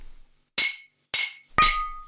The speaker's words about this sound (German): Dann lasst uns auf äh, engagierte, starke Frauen anstoßen. Und auf unsere antifaschistische Arbeit, die nie, niemals enden soll. Und auf nie wieder Krieg. Genau. Prost.